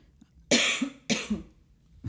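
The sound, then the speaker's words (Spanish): Two sharp, harsh coughs from a woman, a wife, about half a second apart, with the start of a third at the very end. No talking. “Estornuda el perro, tose la esposa.”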